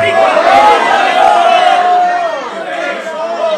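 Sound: audience shouting praise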